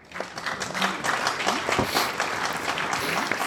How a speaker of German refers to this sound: der spielt sich selber Applaus ein gerade.